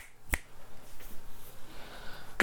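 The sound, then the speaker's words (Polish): Two crisp finger snaps, first on the right and then about two seconds later on the left, made while testing a recorder's limiter; each a sharp, bright click over a faint, steady low hum with no talking. “Mówię głośno, limiter powinien zadziałać jak pstrykam palcami po prawej, po lewej.”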